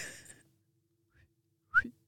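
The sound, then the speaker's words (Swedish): A single short, sharp whistle rises quickly in pitch and is gone almost at once. Faint breathy rustling comes before it, and a quiet gap separates the two. “Det kändes som att de visslade.”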